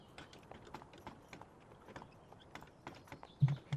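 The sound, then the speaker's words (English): Horse hooves clip-clop in a steady, uneven rhythm as a carriage rolls across Oppara and out into the surrounding countryside, quiet, over a low rumbling background with a louder thump near the end. “As you ride the carriage across Oppara and then out into the surrounding countrysides”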